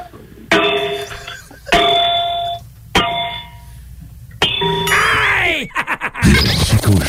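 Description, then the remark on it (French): The base of a lamp, apparently bronze, is struck four times at a steady pace, each hit giving a bright metallic clang with a long ringing, bell-like tone that fades before the next. Then other noisy sounds follow. “Donc, juste cogner sur la lampe si je frappe sur le, socle, le pied, ça, c'est un drôle de son.”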